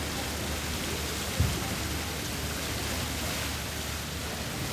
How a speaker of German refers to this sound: Da ist der Brunnen, guck mal da drüben. Man hört ihn schon. Und er hat was von so einer Konditorware ein bisschen. Ich glaube, es hat ihm immer gut gefallen, einfach wie die Form umschrieben wird von dem Wasser, das daran entlang fließt.